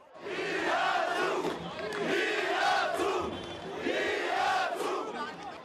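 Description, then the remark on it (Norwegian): A large crowd of up to 15,000 protesters blocking a main street in Yerevan, Armenia, chants "We stand together" in unison. The chant is loud and rhythmic, the shouted phrase rising and falling in repeated waves over a steady wash of crowd noise. “Vi står samlet, roper demonstrantene.”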